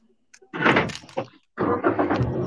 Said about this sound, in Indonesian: Lu berisik amat siapa tuh? Gue nyalain mobil.